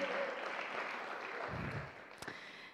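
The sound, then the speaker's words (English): A crowd applauds steadily for a female performer, a dense wash of clapping hands that holds for a few seconds, with a couple of sharper claps near the end. “Can we give her another round of applause?”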